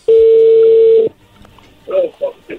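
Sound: telephone call being dialed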